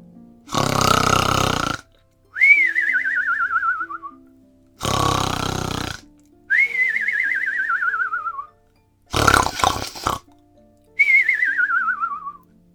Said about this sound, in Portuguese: O homem sentou-se e ficou ouvindo a suave melodia quando finalmente sua cabeça começou a balançar e seus olhos começaram a fechar lentamente, até que o gigante começou a roncar, fazendo a casa inteira tremer.